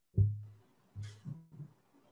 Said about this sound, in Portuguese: Ela é um, um, um instrumento que eu criei no, no, no Ableton pra, com é, eu batendo no, no, no, fundo do violão. Então, se você ouvir aqui, o, isso aqui é eu batendo no fundo do violão.